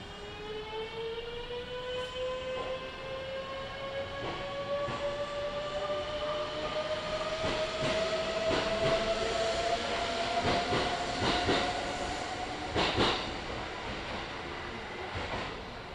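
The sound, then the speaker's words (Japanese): The Ise-Shima Liner limited express train bound for Kashikojima pulls out from platform 2, its electric motor whine climbing steadily in pitch over sixteen seconds while wheels clack and thump over the rails at an increasing pace. No one speaks. “2番乗り場から賢島行き特急伊勢島ライナーが発車します”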